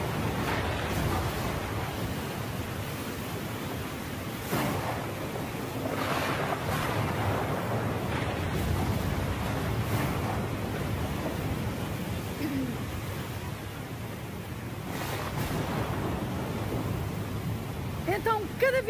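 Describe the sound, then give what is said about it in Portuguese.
A stormy sea roars nonstop with strong wind, heavy waves surging and crashing every few seconds in a dense, loud wash of noise that never lets up. “As ondas ficam cada vez mais fortes. O vento sopra com cada vez mais força.”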